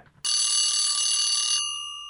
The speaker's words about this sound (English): And the alarm bell, as always, brings to an end another interview show.